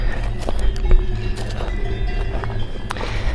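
Open-air alpine pasture ambience with cows shuffling around, a few soft hoof thuds and rustles over a steady low outdoor rumble, no voices. The pasture lies in the heights above Molaison Village, below an alpine chalet.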